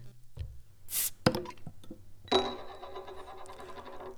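A beer bottle is opened with a short airy hiss, followed by a few sharp clicks and clinks, then a ringing, glassy tone lingering for a couple of seconds. Clear, no voices.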